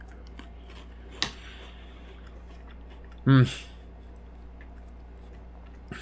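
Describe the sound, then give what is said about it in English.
Crunching of saltine crackers being chewed, with a sharp bite early on and quiet mouth sounds throughout, interrupted midway by a brief, loud hum of enjoyment. “I'm enjoying some sweet, sweet saltines.”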